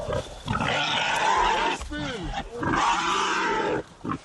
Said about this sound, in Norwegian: mange hunder som sto og tygde på et eh, villsvin som eh, Selvfølgelig, eh, de skriker jo stygt av grisene.